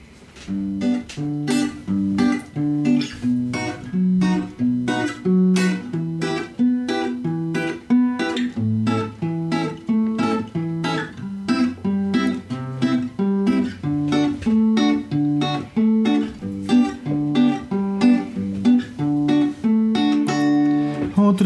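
An acoustic guitar plays a song intro alone, with steady, rhythmic picked and strummed chords ringing out fairly loud for about twenty seconds, with no voices.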